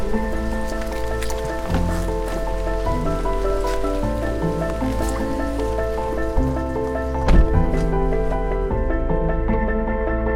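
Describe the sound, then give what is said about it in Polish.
Steady rain falls throughout at the edge of the village of Trześcianka, a continuous hiss of drops with sustained, shifting tonal hums layered underneath. No one speaks. “ale ważne, żebyśmy znaleźli jeszcze miejsce z jakimś daszkiem, żeby na głowę nie padało.”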